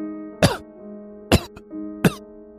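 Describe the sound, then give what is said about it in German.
A man coughs three times in short, harsh bursts spaced about a second apart, fairly loud, over a steady low humming drone in the background. “Er hustet und seine Lider beginnen zu flattern, aber sein Grinsen bleibt unverändert.”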